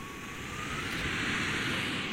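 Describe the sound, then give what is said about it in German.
A small jet turbine mounted on top of the fuselage of a research model aircraft whines on the runway before takeoff, a steady rushing roar topped by a thin high-pitched tone that creeps slightly upward as it spools up. “Die kleine Turbine oben auf dem Rumpf des Flugzeugs heult auf.”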